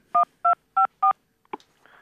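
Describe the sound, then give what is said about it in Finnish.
Four evenly spaced telephone keypad tones beep in a steady rhythm as someone dials a call to Google, each a clear two-pitch dual tone, followed by a brief click and a faint line hum, with no talking. “No jos se Google on niin etevä, niin minä soitan sinne.”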